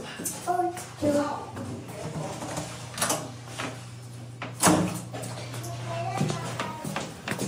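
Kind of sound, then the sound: household object, door being opened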